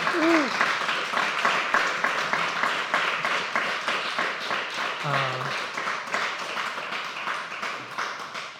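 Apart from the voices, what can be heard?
audience applause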